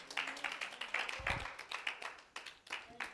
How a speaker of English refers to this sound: Give God a hand clap of praise.